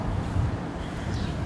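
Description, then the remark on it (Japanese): Steady low rumble of wind buffeting an outdoor recorder's microphone used without a windjammer, a dense, muffled roar filling the whole moment at a fairly constant level, with no voices present. “失敗したなと思ったのはあのウィンドジャマーを忘れたっていう、うん、風がね、はい、まあ多分この風がゴーゴー言うのをどうやって切ろうかなって思ってますけど。”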